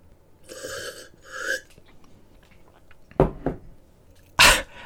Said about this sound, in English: I'm just having a sip of Normandy Calvados. Join me if you can. Cheers.